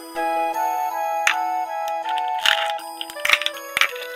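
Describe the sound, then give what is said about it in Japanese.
Soft scratching and crackling from something moving inside an egg, in a few short irregular bursts that grow busier toward the end, over a steady sustained musical tone. “カリカリ音が聞こえてきます。”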